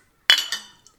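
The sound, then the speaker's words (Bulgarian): Glasses clink together in a toast: a bright, ringing strike followed quickly by a second touch, with a faint third tap trailing off, clear with no talking. “Позвучай на здраве.”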